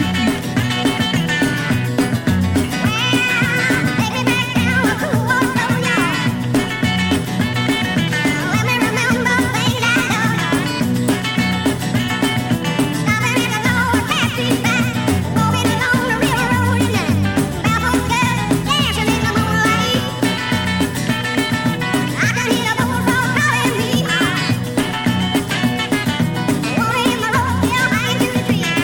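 A steady, full-band 1969 swamp rock song plays continuously at an even, fairly loud level, with a driving low end and bright guitar-like tones over the top. No one talks over it.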